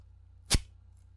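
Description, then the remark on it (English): A single quick, rasping scrape of a wooden chopstick dragged across sandpaper as part of a campfire-starting sound effect, a short gritty swipe lasting a fraction of a second, heard alone over a faint low hum. “The five items that went into creating this sound were sandpaper, a wooden chopstick,”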